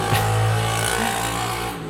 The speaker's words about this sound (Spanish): estoy grabando desde mi casa, por eso, eso que se percibió allí, que fue una moto terriblemente ruidosa. Em, pero bueno, estoy en mi cuarto eh, y por eso algunos ruidos que estén por allí me los van a disculpar.